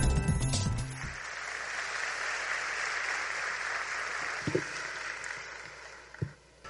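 Steady applause from an audience, a dense wash of many hands clapping that holds for several seconds, with a brief burst of music or noise at the very start and a few louder claps near the end.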